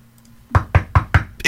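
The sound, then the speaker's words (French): Four sharp, evenly spaced knocks on a door on a Saturday morning ring out loud, followed by a burst of brighter noise at the end; a faint low hum sits underneath beforehand. “ça cogne à la porte.”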